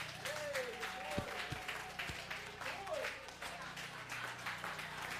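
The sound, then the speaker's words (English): An audience claps for the speaker after he mentions being married for 14 years, a dense, continuous wash of applause lasting several seconds, with a few sharper individual claps standing out and a murmur of crowd voices underneath. “Come on, clap it up. Clap it up for your boy.”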